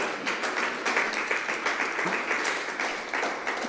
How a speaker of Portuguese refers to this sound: Amém? Quem pode aplaudir o Senhor por isso?